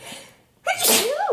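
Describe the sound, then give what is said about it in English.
A single loud sneeze bursts out after a quiet moment, a sharp breathy explosion with a brief voiced tail, no one speaking over it. “I just sneeze.”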